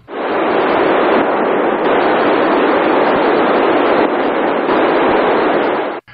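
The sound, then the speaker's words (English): Loud, continuous hiss of radio static on 437.505 MHz fills the whole stretch, a dense rushing band noise with faint shifts that mark 9600 baud data bursts from the RAX-1 amateur radio satellite transmitter as it flew over Hawaii, then cuts off abruptly at the end. “The burst of static you hear between the band noise is the 9600 baud Rax 1 transmitter.”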